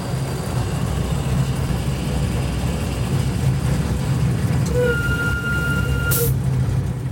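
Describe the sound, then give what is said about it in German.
A small miniature park railway train in the palace garden in Karlsruhe rumbles along steadily with a low, continuous engine drone, a brief whistle-like tone sounding near the end, followed by a short hiss of released air. “Das reinste Vergnügen - mit der Schlossgartenbahn in Karlsruhe unterwegs”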